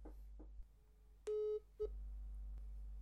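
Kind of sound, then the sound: signal or alarm, telephone ringback tone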